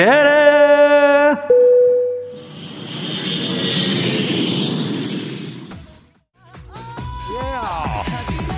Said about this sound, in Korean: 자 그럼 우리 비행기 이륙합니다. 갑니다.